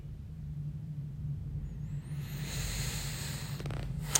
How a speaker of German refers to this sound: Und das, das war kein Pups, das war mein Gürtel, ja, falls das so klang. das war nur mein Gürtel.